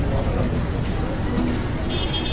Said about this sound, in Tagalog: Ang ingay ng mga sasakyan, di ko marinig.